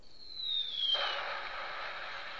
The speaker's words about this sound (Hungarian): És kérnénk, nincs ilyen gyilkolós hangefekt? Uh, hát a sikoly van. Hát a siki. Vagy ilyen, ilyen ja, van még egy bomba.